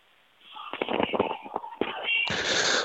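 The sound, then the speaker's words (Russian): Crisp, irregular crunching of a caller from Samara biting into a cucumber while on air, heard over a muffled phone line, with bursts of crackle and a louder rustling surge at the end. “У меня, я не пойму, хрустит огурец, по-моему”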